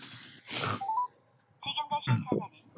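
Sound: phone keypad dialing tones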